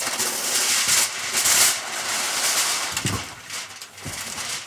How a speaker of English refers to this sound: And that, that is aluminum foil. Because in order to bake in a water bath with a springform pan, you need to line the bottom of the pan on the outside with typically aluminum foil.